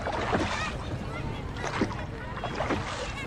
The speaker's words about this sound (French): Un immense bassin avec jet d'eau se trouve en plein milieu de la place.